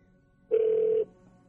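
A single half-second burst of a steady electronic telephone ring tone, clear and fairly loud against a quiet background, as heard over a phone line.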